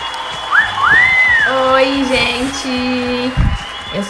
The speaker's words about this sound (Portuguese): Por favor, recebam com uma salva de palmas